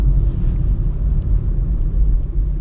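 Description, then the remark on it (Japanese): Steady low road rumble from inside a moving borrowed car, driving early in the morning on the way to go black bass fishing, a continuous deep droning hum with no voices, filling the whole stretch at an even, fairly loud level. “今朝5時あいや4時44分ちょっと不吉なタイムですが今釣りに向かっていますえー、ブラックバスを釣りたいなと思ってねちょっと車借りて”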